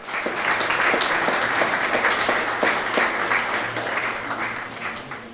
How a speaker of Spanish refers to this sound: Un aplauso, Nidia y Lucía.